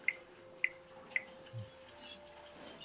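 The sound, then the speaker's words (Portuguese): Three crisp finger snaps at an even, quick pace, fairly quiet, made while walking past in front of each horse, followed by faint low background noise with no voices. “E nessa caminhada eu estralava o dedo três vezes quando eu passava em frente de cada cavalo.”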